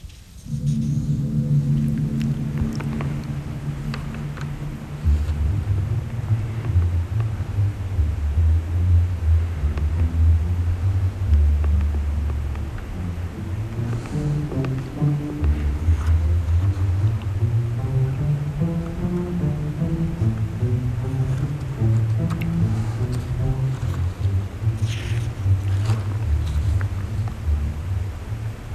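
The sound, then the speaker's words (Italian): Dark, brooding orchestral strings play a sustained, low-register passage from the exposition of a symphony, with slow melodic lines shifting over a deep, steady foundation; no one speaks. “ma a mano a mano questo momento di, di, di canto oscuro, nostalgico, eccetera, si rompe, si frantuma, diventa estremamente inquieto e l'esposizione finisce in una regione diversissima da quella da cui si era incominciato.”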